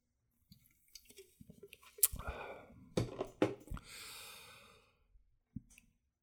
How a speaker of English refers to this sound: What I was just drinking is called Liquid Death, but it's water. It's sparkling and it comes from a can. It looks like beer. When I when I'm drinking it, I I, I like to drink it out of the can because it's it's like a novelty.